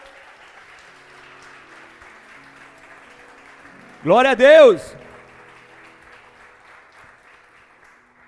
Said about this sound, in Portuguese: Se você acredita, aplauda bem forte a Ele, aleluia!